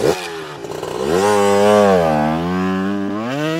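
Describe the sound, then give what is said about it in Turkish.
A motorcycle engine revs up sharply, its pitch climbing to a loud sustained whine and holding steady before cutting off abruptly; continuous, with no voices. “Sesli harflerin bugünkü icat konusu motosiklet.”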